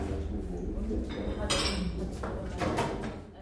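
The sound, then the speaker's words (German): Cutlery and dishes clink repeatedly during a meal of goose leg with red cabbage, with bright, irregular metallic and ceramic taps over a steady murmur of background conversation. “Wir essen Gänsekeule mit Rotkohl und sprechen über die Forderungen nach Reparationen und einer offiziellen deutschen Entschuldigung für die begangenen Gräueltaten.”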